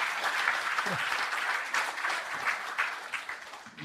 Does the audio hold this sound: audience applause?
yes